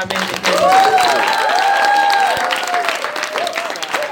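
A crowd claps steadily and loudly, a dense rattle of many hands, while voices whoop and cheer over the top throughout.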